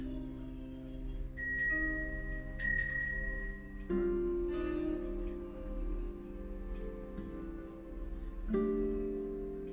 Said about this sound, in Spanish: Yo me ocuparé del tiempo y al terminar escucharás como de costumbre una pequeña campanita que te dirá que es momento de regresar.